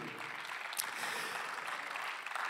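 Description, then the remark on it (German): An audience at a church service applauds God with steady, dense clapping that blends into a continuous crackling wash, holding at an even level for the whole stretch with no voices above it. “Lass uns Gott für das wirklich einen Applaus geben.”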